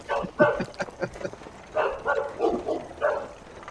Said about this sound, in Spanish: Nos persiguen perros, dale rápido